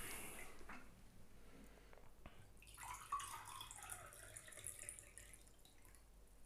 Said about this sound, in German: Ja, kannst du mir auch nochmal Wasser einschenken, bitte.